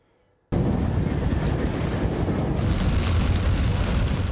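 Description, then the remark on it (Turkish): After a brief moment of near silence, a loud, steady roar of heavy rain and rushing floodwater bursts in and continues without pause, dense, with no voices. A downpour floods the streets and roads of Fethiye. “Fethiye'de yağmur cadde ve sokakları göle çevirdi.”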